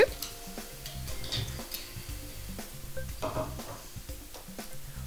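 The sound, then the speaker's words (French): About 125 g of butter and 100 g of chocolate pieces being placed into a plastic microwave pitcher to be melted in the microwave, with a string of light taps, clicks and soft knocks spread irregularly throughout, no one talking. “Alors, on va commencer par faire fondre le beurre avec le chocolat pendant 1 minute 30 au micro-ondes.”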